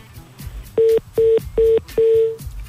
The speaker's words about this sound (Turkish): Ağzımıza çaktılar telefonu. Sadece burada mıyız diye herhalde kontrol etmek istiyorlar.